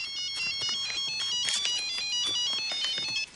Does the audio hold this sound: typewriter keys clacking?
no